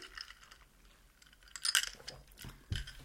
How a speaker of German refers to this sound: Und wir stoßen an mit Amaretto Sour.